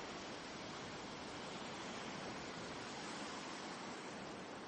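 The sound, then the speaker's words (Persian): A steady, soft wash of calm sea waves murmurs continuously on a starry night, with no distinct breaks or crashes, an even hushing surf sound heard alone without any voices. “شبی پرستاره بود و صدایی به جز زمزمه ملایم دریای آرام به گوش نمی رسید”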